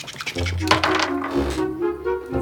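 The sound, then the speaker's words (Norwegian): A die is thrown for a game, clattering briefly across a tabletop with a sharp click followed by a short rattle, and lands on four, over a steady, soft tonal background. “Stål kaster terning og vil at Frida skal spille sammen med han.”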